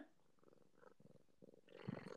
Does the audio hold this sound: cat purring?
yes